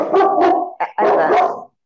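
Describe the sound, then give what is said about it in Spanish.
A dog barks loudly as it goes toward the door, learning to be a guard dog: two long, drawn-out harmonic barks with a brief yip squeezed between them, and no one talking over it. “él está aprendiendo a ser perro guardián. Me encanta, ladre, que ladre.”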